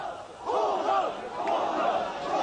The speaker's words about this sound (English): A line of soldiers was strung out facing a huge crowd. The air was filled with shouts of fascists, stop killing.